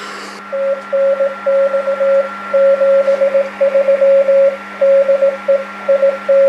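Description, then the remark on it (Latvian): Slow Morse code beeps from an amateur radio band transmission on a single steady tone, short and long pulses in irregular groups, heard over a faint radio hiss with a low hum underneath. “Nu, tā ir tāda samērā lēna morzes raidījums.”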